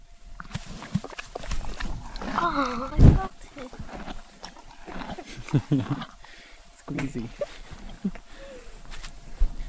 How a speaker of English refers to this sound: Um, we recorded a donkey and a horse chewing.